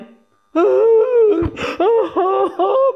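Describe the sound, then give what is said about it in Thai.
A voice imitates a whimpering baby's cry, a drawn-out wailing moan followed by several shorter, rising sobbing bursts, fairly loud, with no other talk. “คริสเตียนจำนวนมากมายเป็นเหมือนเด็กทารกสู้ไม่เป็น พอโดนซาตานโจมตีนิดนึงก็ร้องไห้กระจองงองแง”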